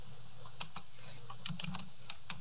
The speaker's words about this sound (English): I can hear you typing. Oh. like, if I can hear your keyboard, surely I can hear you talk.